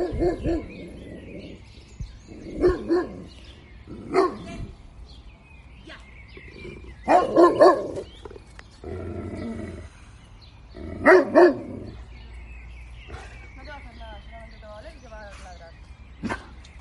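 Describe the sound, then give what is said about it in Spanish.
A dog barks in loud, irregular bursts, several of them doubled, with quieter stretches between and faint bird-like chirping near the end. “Aquí me ladró un perro.”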